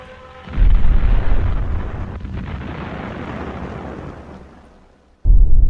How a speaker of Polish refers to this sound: Niemcy atakują też z powietrza. Od pierwszych godzin wojny niemal cała Polska znajduje się pod bombami. Spadają one m.in. na Warszawę czy Grodno.